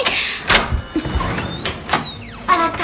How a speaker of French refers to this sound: Quand le prince qui y réside a ouvert la porte pour sortir, il s'est retrouvé comme par magie